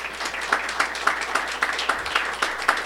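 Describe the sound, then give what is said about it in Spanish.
A Christian audience applauding the Lord together, a dense steady patter of many hands with a faint rhythmic pulse of louder claps about every quarter second, sustained throughout without talk. “Dele un aplauso al Señor, mi hermano.”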